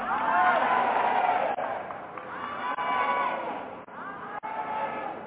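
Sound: audience screaming and cheering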